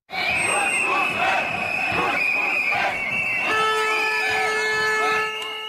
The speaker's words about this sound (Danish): Kurz må væk, råbte mange af de omkring 10.000 demonstranter med henvisning til forbundskansler Sebastian Kurz.